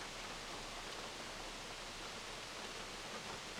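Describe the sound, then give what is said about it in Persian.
A steady, unbroken rush of water falling down a waterfall fills the whole stretch, a dense hissing roar that never changes pace or volume, with no voices or other sounds over it. “یکی از خصوصیت های بارز آبشارها اون خروش عجیب و قویه که دارن”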